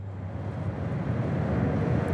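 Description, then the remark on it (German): A steady low rumble and roar fills the space, the constant drone of a train moving at speed through a tunnel, heard from inside the train travelling from Zürich HB to Pfäffikon in the canton of Schwyz, Switzerland, with a broad hiss on top and no voices. “Wir höckeln gerade im Zug, haben keine Aussicht, weil wir gerade im Tunnel sind, gell?”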